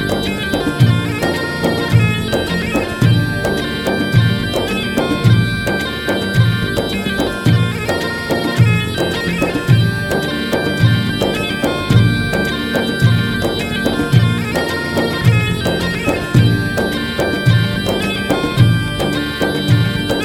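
A recorded song plays loudly and continuously, a full band arrangement driven by a steady, regular beat with sustained melodic instruments layered over it.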